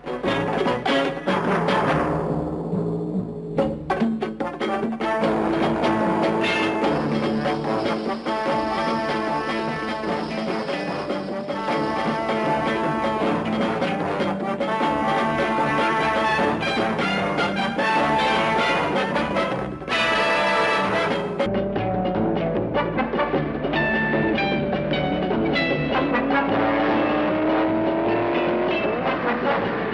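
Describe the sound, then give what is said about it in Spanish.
Loud, driving theme music of the TV series The Prisoner, with bold brass and strings, plays continuously for the whole stretch, mixed with the roar of a car engine and screeching tires. No one speaks. “pero esta es la música de la serie.”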